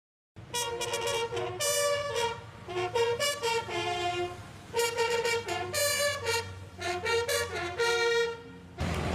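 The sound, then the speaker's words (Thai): Navy bugle signaler students at a naval music school sound a military call on bugles: bright brassy notes rising and falling in short phrases with brief pauses between them, loud, with no talking over them. “เพื่อผลิตพลสัญญาณแตรเดียวไปประจำหน่วยต่างๆ อาทิพลเรือรบ กองเรือและหน่วยบัญชาการนาวิกโยธินเป็นต้นค่ะและในวันนี้นะคะก็จะพาท่านผู้ชม ไปติดตามชมชีวิตของนักเรียนพลสัญญาณแตรเดียวณโรงเรียนแห่งนี้ว่าในหนึ่งวันพวกเขาทำอะไรกันบ้าง”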